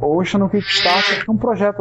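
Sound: sneeze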